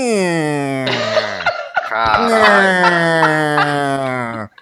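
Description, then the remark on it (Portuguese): A voice imitates the tyres of a car being manoeuvred squealing on a tiled floor: a loud, sustained, whining squeak that wavers in pitch, breaks briefly, then resumes for a second long stretch. “Sabe o, o pneu no azulejo, assim? O pneu no piso? Era esse barulho.”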